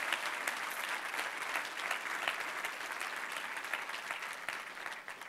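An audience in Laval applauds steadily to encourage about thirty people being baptized, a dense wash of many hands clapping at a brisk, even pace with no pauses, holding at the same level throughout.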